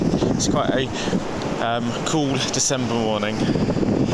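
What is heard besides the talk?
roar of the sea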